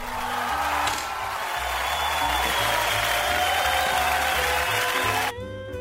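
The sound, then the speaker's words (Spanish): Steady, dense applause greeting a guest, sustained for about five seconds over a backing of low, stepping music notes, then cutting off abruptly near the end, leaving only the music. “¿Y los aplausos? Ya, ya sonaron.”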